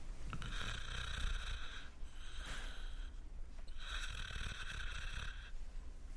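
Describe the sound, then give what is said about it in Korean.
Soft, steady snoring of an elderly man, a grandfather, sleeping, in two long drawn-out breaths with a rasping, harmonic buzz, quiet with no talking. “작은 소리로 코를 골며 자고 있는 모습을 한참 동안 지켜보고 있었다.”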